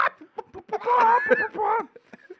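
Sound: person imitating a pigeon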